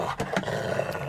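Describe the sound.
A man growls and snarls like an angry dog, a continuous rough, throaty rumble with a few sharper bursts, fairly loud, with no talking.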